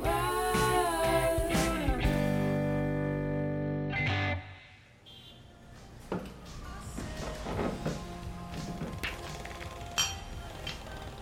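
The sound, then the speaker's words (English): An old-fashioned song plays through a tinny, distorted radio in Mrs. Sohcahtoa's dingy, smoky city bar for about four seconds, then cuts away to quieter clinks and clatter of glasses and dishes in the background. “What a tune. Oh, that takes me right back to my childhood.”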